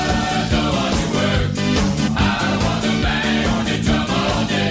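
A loud, dense rock song plays with pounding drums driving a steady beat under full guitars and bass, with no talking over it.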